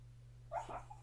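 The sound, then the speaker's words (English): A male dog, dreaming in its sleep, lets out a single short, muffled yelp-like bark that trails into a soft whimper, fairly quiet over a steady low electrical hum. “That's my dog just um, having a nice dream there.”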